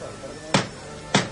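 Two sharp wooden knocks from a knocker hammer striking a processional float at its departure from the Real Convento de Santo Domingo, evenly spaced about half a second apart, ringing out clearly over a low background murmur.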